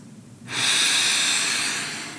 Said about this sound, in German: Und deswegen schließen wir heute ab mit einer tiefen Atmung und ich würde sagen, wir atmen dreimal tief ein und aus.